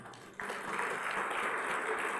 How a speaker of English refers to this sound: Let's give the Lord a hand clap.